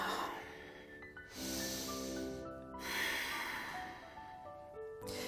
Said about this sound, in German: Tief ein und tief ausschnaufen. Und ihr wisst ja so schön, wie es ist im Yoga, je intensiver das es wird, desto tiefer schnaufen wir.